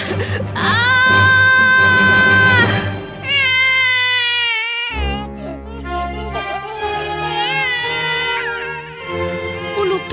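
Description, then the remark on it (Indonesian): A newborn baby boy wails just after birth in long, strained cries, loud, with brief pauses for breath between sustained bursts. “akhirnya melahirkan seorang bayi laki-laki normal.”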